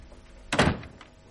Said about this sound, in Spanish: César cerraba la puerta tras de sí